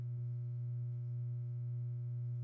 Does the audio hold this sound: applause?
no